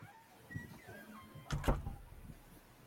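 A teacher swings a door shut with a solid thud, followed by a brief rattle as it settles, against faint background murmur.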